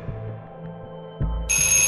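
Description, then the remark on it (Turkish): A doorbell in an apartment building is rung a second time after no answer, on a snowy day: a bright, steady electronic tone cuts in suddenly near the end, just after a dull thump, over a low, constant hum. No one speaks. “Ali zile bastı. Yanıt veren olmadı. Bir daha dokundu.”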